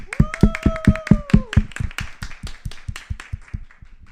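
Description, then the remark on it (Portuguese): Rhythmic clapping for an award-winning public school Portuguese teacher from São José dos Campos, in a steady, quick beat, loud at first and gradually fading over about four seconds, with a held voiced cheer over the opening moments. “Por favor, palmas e mais palmas para essa estrela.”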